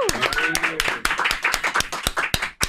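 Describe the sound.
An audience bursts into applause, a dense, irregular patter of many hands clapping for a few seconds, with voices and cheering mixed in underneath.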